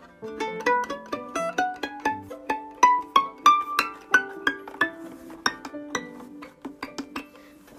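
A violin plays a run of short, plucked-sounding notes that climb steadily higher in pitch, each note bright and quickly fading, with no talking over them.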